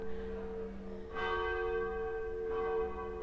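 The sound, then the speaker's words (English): Church bells chime with two fresh strikes about a second and a half apart, each ringing out over a sustained, humming resonance from earlier tolls. Steady, with no voices. “I'm not even sure how long the church bells chime.”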